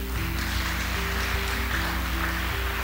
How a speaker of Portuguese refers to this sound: Você pode louvá-lo através das suas palmas.